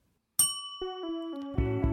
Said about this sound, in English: So I'm going to say something that I've never done, and if you have done it, you will ring your bell.